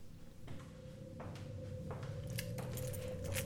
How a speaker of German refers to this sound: Mona holte Mamas Schlüssel aus ihrer Jackentasche und steckte ihn in das Schloss.